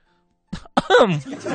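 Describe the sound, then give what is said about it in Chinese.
A voice imitates a polite, elegant, moderate sneeze of the 'cautious sneezer' type: a short breathy intake, then a vocal "achoo" burst of medium loudness that trails off into a brief voiced tail. “这第三种打喷嚏类型呢，叫做谨慎型喷嚏者，打喷嚏的方式很有礼貌、优雅，声音适中，”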